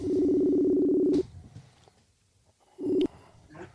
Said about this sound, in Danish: Åh, oh, den er så træls, den der Messenger. Øh, tonen der.